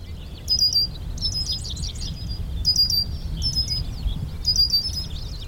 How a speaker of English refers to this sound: Back on the main trail, we can find lots of plants stable enough for birds to perch themselves, and they made their calls heard.